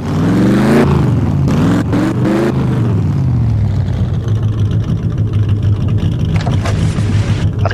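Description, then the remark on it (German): A loud Mustang sports car engine on Hill Road in San Francisco, USA, revs sharply several times, its pitch rising and falling, then settles into a deep, steady rumble as the car pulls up and idles. No one speaks. “Alexandra und Piotr steigen aus einem Mustang aus.”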